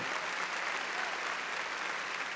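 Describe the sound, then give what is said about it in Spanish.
Loud, sustained applause from many people clapping in praise of the Lord, a dense steady wash of clapping with no pauses or spoken voices. “A ver, démosle palmas fuertes, hermano, a nuestro Señor.”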